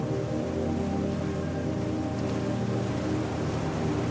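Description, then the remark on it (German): A soft, steady wash of gentle ocean waves on a shore, continuous rather than crashing, with a low sustained hum underneath and no voices. “Die Wellen brechen leise am Ufer.”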